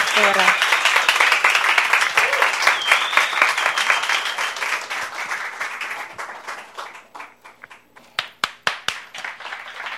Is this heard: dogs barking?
no